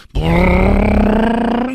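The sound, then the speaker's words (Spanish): A voice imitates a revving motorcycle engine, as ridden in a scene of the film La Guerrera Vengadora 2, with one sustained, loud, buzzing drone at a low, steady pitch that rises slightly toward the end, with no other sounds. “Y en una película sale con el tuntún en La Rock Gloria en La Guerrera Vengadora 2 porque va en la moto y dice, agárrate, reintegro.”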